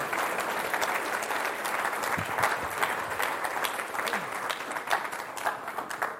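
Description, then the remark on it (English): An audience applauds steadily, a dense wash of many hands clapping at a constant, fairly loud level for several seconds, with a few louder individual claps standing out. “They're applauding me being quiet as another miracle, by the way.”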